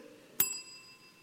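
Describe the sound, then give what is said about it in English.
A counter service bell on a store counter is struck once with a sharp, bright ding whose metallic tone rings out and slowly fades. It stands alone with no talking. “When you walk into a store and you see one of the things on the counter”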